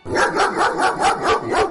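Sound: dog barking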